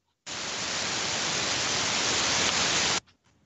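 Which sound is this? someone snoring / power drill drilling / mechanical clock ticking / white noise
white noise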